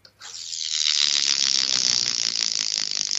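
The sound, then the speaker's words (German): A steady, fast mechanical rattle from the flywheel mechanism of a toy Lego model, run by children after its air filter piece flew out, starts abruptly after a brief click and runs continuously and fairly loud for about three seconds with no voices. “Äh, da hatte ich mir ein Set mitgenommen und das haben wir aufgebaut und ausgepackt und meine Kinder haben das zwei, dreimal fahren lassen und dann klang das plötzlich so, hört mal.”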